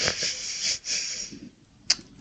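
Someone sniffles through a stuffy nose: two long, breathy, hissing inhales, then after a short pause one quick, sharp sniff. No talking.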